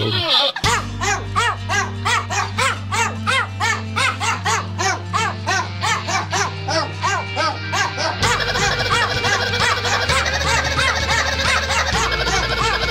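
Dog barks chopped and pitched into a fast, rhythmic melody over a steady bass and music backing, the yips repeating in quick bursts throughout like a sung tune.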